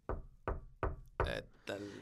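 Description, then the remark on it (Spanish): Five firm knocks on a door, evenly spaced at a steady rhythm, loud, each with a short wooden resonance ringing after it. “Y que no dice, a ver, si hay un demonio aquí, alguien malo, quiero que toquen la puerta. Y no mames, que escucha.”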